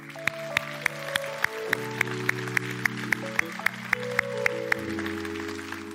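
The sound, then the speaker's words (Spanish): A church audience applauds God in a steady wash of clapping, with sharp rhythmic claps standing out, while sustained keyboard chords hold underneath and shift pitch now and then. “Denle un aplauso Dios.”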